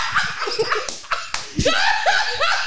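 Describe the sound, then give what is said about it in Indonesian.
Several sharp slaps crack out in quick, uneven succession, mixed with excited voices and laughter that carry on around them. “Emosi nih tampar, tampar seng, tampar, tampar.”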